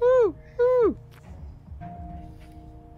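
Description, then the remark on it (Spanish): A voice imitates an owl with two drawn-out hoots, each rising then falling in pitch, followed by quiet room tone with faint low rumble. “No es …, es un búho, ¿eh?”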